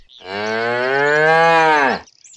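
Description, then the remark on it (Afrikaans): A single long, loud cow moo, rich and harmonic, rising slightly then holding steady for nearly two seconds before cutting off, with no talking. “Daar was eendag 'n hen met 3 kuikens wat saam met 'n koei op 'n plaas gebly het.”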